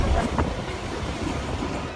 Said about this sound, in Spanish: Esto es Mozambique y el tren está realmente repleto de personas que una hora antes incluso de la salida del tren, pues ya estaban dentro. Cada asiento de dos, pero vamos tres y en cada fila vamos ocho personas.